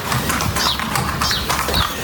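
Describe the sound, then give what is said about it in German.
A horse shuffles and moves up to the microphone, with soft rustling, thumps and clip-clop steps, plus faint bird chirps in the background. “Also Pferde finden Mikrofone sehr interessant.”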